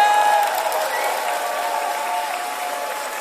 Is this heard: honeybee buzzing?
no